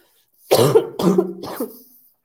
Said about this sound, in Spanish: Todavía estoy un poquito malita, disculpen la tosecilla.